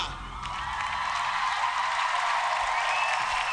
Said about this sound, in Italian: Un enorme applauso sul palco di X Factor.